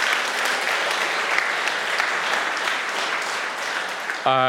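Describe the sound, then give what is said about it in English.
A crowd at a church service gives God a round of applause, a dense, steady wash of many hands clapping at fairly even loudness, before a brief harmonic tone, like a voice or note, cuts in at the very end. “Can we just give um, God a round of applause?”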